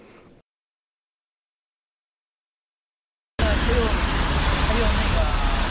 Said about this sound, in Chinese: 现在在我家到吃饭点的十字路口，然后圣诞节的晚上，上海有点下雨。